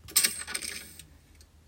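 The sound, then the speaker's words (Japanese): The chiller drawer of a home refrigerator slides open and shut with a bright rattling clatter, followed by a few faint clicks, with no talking. “自分家の冷蔵庫のチルドを開ける時の音をキャッチ、キャッチないわ、なんだっけ。”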